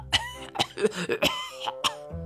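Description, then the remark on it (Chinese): A string of harsh, hacking coughs, about five sharp bursts over two seconds, broken up by raspy throat-clearing and strained, voiced grunts, with no words spoken; the coughing of the rabbit character Tu Ye in a Chinese story. “说着，他咳嗽起来。”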